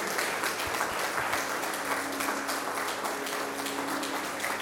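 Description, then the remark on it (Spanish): A church audience applauds the cell group leaders steadily, a dense wash of many hands clapping at an even, sustained loudness throughout, with a faint low hum underneath and no voices. “Den la iglesia y en sus casas démosle un aplauso a los líderes de célula.”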